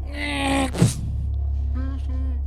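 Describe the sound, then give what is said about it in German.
A sustained, strained vocal cry from a person screaming rings out, breaks off with a sharp breathy burst, then returns as a shorter wail, steady, with no words spoken. “Hey, hör auf zu schreien.”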